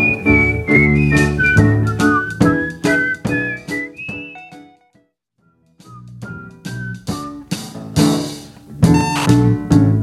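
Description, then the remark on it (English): A whistled melody glides and steps over a full band backing with steady drum hits, pausing briefly midway before the music and whistling return loud and up front. “like a real whistling solo because it is a bit much if it's those joke whistlings.”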